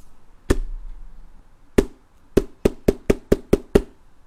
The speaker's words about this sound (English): Mr. Nosey was going past the fence when he heard hammering